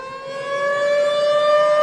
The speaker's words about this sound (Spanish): Póngame sirenas. Póngame sirenas ah.